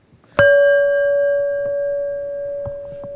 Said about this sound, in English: You want to hear the bell? Oh yeah.